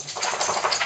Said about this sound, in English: I think that, sorry, that was my dog over here.